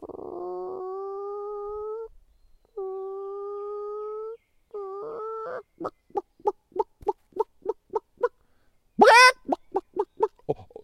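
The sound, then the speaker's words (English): A voice imitates chickens: a few drawn-out, nasal calls, then a quick, evenly spaced run of about ten clucks, ending in one loud, shrill squawk. Clear, with no other sounds. “oh and it was chickens?”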